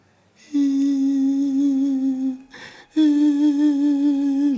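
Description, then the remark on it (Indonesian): A voice imitates a woman's drawn-out moaning cry, as if in pain and pleading for help: two long sustained wailing tones separated by a brief breathy gap, fairly loud. “Ini suara wanita masalahnya. Tangisan wanita. Merintih dia.”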